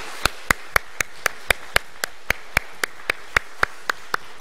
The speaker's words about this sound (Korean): 우리 우리 사신 주님께 우리 영광의 박수 한번 같이 드리도록 하겠습니다. 감사의 박수 드리겠습니다.